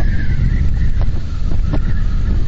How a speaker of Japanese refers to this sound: ピューって言ってるの、これどこが鳴ってるんだろう。よくあの風の強い日、台風の時とかに、窓を、窓をね、ちょこっと隙間開けると、その隙間開けた部分が口笛みたいな感じで、ヒューって言うじゃないですか。これ、こんな屋外にいてもこの音が出るんだ。